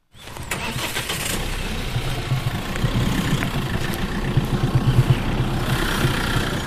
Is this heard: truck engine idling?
yes